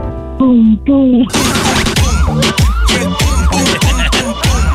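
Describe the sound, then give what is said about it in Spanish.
A child's voice imitates the sound of their mother's heartbeat, first with a couple of drawn-out vocal sounds, then a steady run of quick, rhythmic thumping syllables, fairly loud. “¿Tú sabes el ruido del corazón de tu mami?”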